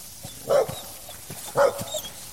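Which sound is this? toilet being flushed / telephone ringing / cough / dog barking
dog barking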